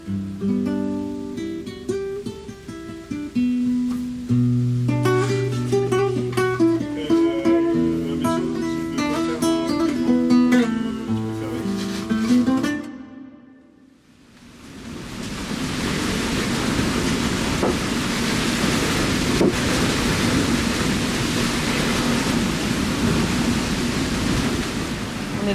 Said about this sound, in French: ça souffle. Du vent il Il y a 35 nœuds.